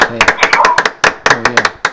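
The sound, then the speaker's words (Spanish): A small group claps their hands in brisk, uneven applause, with sharp, loud slaps and a murmur of voices faintly underneath. “Un aplauso, por favor.”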